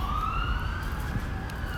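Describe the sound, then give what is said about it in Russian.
A fire engine or ambulance siren wails steadily with a slow upward glide, moderately loud, over a low rumble of city street traffic. “Здесь, на улицах, со временем, записывая множество стриткастов, ты учишься игнорировать сирены пожарных машин, карет скорой помощи.”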